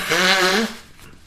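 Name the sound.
sneeze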